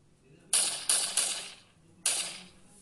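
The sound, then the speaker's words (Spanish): Four sharp gunshots crack out at a park, three in quick succession and a final one after a short pause, each a bright, loud bang with a brief fading tail. “Unos minutos después se escucharon unos disparos.”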